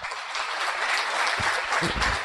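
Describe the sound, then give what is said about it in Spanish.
An audience applauds steadily for a couple of seconds for the 'línea de auspicio' support team, a dense wash of many hands clapping at an even, fairly loud level with no voices standing out. “Así que pido un fuerte aplauso para la línea de auspicio.”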